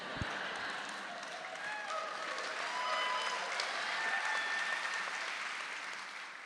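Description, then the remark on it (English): Steady audience applause in Portland following an answer fills the whole stretch. A dense wash of many hands claps at an even level, with a few faint whistles or cheers rising above it before it begins to taper. “Getting applause after every answer I'm is.”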